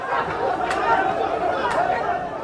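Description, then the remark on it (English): A dense, steady, loud hubbub of many overlapping male voices, with a couple of brief sharp shouts or clatters rising above the crowd noise, as dozens of Pakistan Rangers, the country's federal law enforcement, take arrested former Pakistani Prime Minister Imran Khan into a vehicle after his court appearance. “And what you're hearing there is dozens of Pakistan Rangers, they're the federal law enforcement in the country, taking him into a, a vehicle.”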